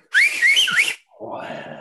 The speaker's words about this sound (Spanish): ese silbido de poder llamar a un amigo que está al otro lado de la calle, que te oiga